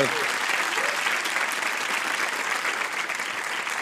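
A crowd claps steadily and densely for several seconds, a continuous wash of many hands applauding at an even, fairly loud level with no pause.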